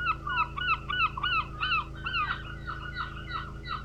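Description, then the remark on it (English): A flock of gulls on the Maine coast squawks and cries in quick, overlapping bursts, busiest at first and then thinning to scattered, softer calls over a steady low background rumble. “We cruised through the quintessential Maine seascape of lighthouses and lobster buoys, gulls and kelp covered ledges.”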